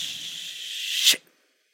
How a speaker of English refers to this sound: Other than the fact that it's sewer water, it it feels like I'm in a spa and there is a temporary waterfall going on. It's just great. Especially as you hear the toilet filling back up.